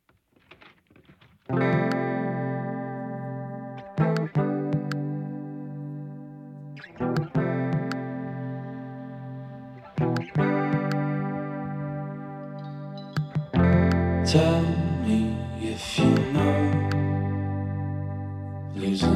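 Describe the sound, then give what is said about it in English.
A music track starts with sustained, effects-laden guitar chords changing every few seconds, then swells into a louder, fuller band sound near the end. No one speaks. “Uh, we're going to get to some more music right meow.”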